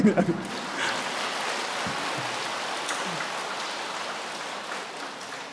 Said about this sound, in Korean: 참 아니 박수 칠라면 지금 하란 말고